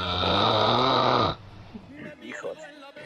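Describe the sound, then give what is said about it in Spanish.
A person makes a loud, rasping snore with their voice for just over a second, then it cuts off abruptly and quieter talking follows. “Roncabol.”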